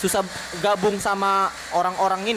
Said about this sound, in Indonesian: Ini suara blender ya, guys ya. Soalnya kita ngepodcastnya di dapur.